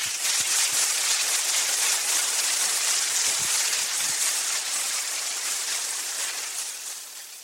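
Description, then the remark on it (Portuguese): An audience applauds for Jesus in a dense, steady wash of clapping that holds for several seconds, then starts to fade out toward the end. No one speaks over it. “Aplausos para Jesus.”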